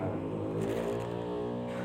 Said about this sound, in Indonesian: habis dari itu kebut ya motornya ya, kebut itu kebut ya motor